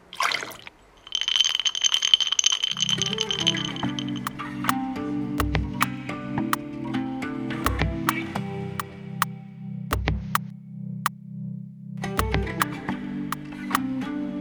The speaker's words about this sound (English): glass, ice, pour.